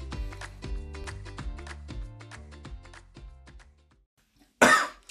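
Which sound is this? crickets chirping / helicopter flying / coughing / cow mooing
coughing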